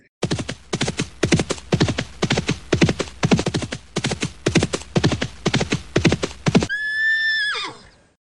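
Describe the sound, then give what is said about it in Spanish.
Brisk, steady hoofbeats clatter for several seconds in a quick clip-clop rhythm, then stop as a horse lets out a loud, wavering whinny that trails off at the end. “Pues nos vamos a la capital, compadre. Sigan sus caballos.”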